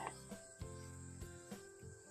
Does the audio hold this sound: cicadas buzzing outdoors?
yes